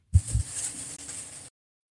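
Two low thumps, then a loud, rushing burst of breath hitting a microphone up close, a harsh, hissy exhale lasting over a second before cutting off abruptly. No one speaks.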